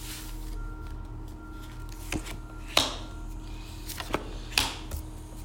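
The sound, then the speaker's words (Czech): Tarot cards being drawn and laid out: four or five soft papery snaps and slides spaced a second or so apart, fairly quiet, over a steady low hum with no talking. “ještě vytáhneme další karty.”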